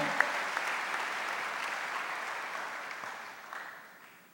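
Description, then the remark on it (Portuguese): An audience applauding Jesus together, a dense, steady wash of many hands clapping that holds level for several seconds before slowly fading, with no voices standing out. “Levanta a sua mão e aplauda a Ele, de verdade, toda a tua vida, de todo o teu coração.”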